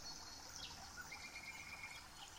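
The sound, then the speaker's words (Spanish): Birdsong from the Mi Paraíso Visión channel over a steady background wash, with a few thin whistled notes and a sustained chirping trill drifting in and out. Quiet, with no one speaking. “Acompaño nuestra lectura con el canto de pájaros del canal Mi Paraíso Visión.”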